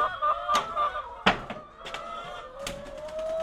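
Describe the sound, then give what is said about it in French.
A flock of farm birds, about 700 kept on the farm this year, clucks and calls continuously, overlapping chatter with drawn-out tones, punctuated by a few sharp knocks or thuds. “un oiseau. Je suis attachée maintenant au, bruit, à l'odeur, euh, à leur comportement”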